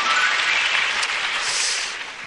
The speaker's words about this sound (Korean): 여러분 박수 부탁드리겠습니다.